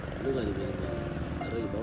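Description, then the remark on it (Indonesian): A Supra motorcycle engine drones steadily for a couple of seconds, its low rumble holding an even, loud level while a voice talks over it. “motor suara motor apa nih Supra”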